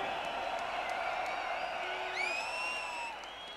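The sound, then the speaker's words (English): A lively crowd cheers and claps in a steady wash of noise, with a few shrill whistles cutting through near the end before it starts to fade. “Make some noise for”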